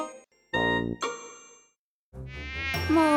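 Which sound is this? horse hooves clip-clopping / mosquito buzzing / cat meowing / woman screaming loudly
mosquito buzzing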